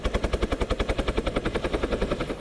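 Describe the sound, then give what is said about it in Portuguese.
A police helicopter flies overhead during a rescue of four campers stranded on a mountaintop in Kentucky because of the weather. Its rotor blades thud in a fast, steady rhythm of loud, regular pulses over a broad engine roar. “No Kentucky, a polícia socorreu de helicóptero quatro pessoas que foram acampar e acabaram presas no topo de uma montanha por causa das condições climáticas.”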